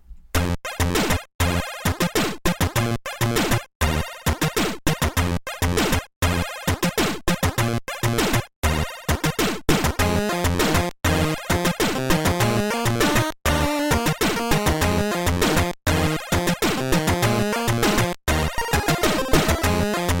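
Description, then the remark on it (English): Busy Game Boy-style chiptune music, the third cutscene track from the Spider-Man game, plays loudly with bright square-wave melodies and a driving rhythm, briefly cutting out at regular intervals as the looping track repeats its phrases. No voices are heard. “It's cutscene three from Spider Man.”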